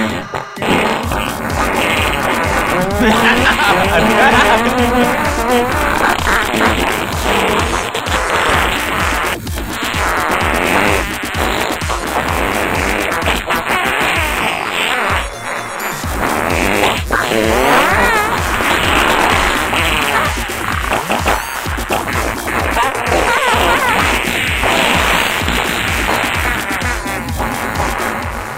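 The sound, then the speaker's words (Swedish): A loud electronic dubstep track plays continuously, with growling, wobbling synth bass and a steady pounding beat. Dense, aggressive and unbroken, with only a brief dip near the middle and no voices. “så jag tänkte ta en jättebra …-låt här och spela för dig”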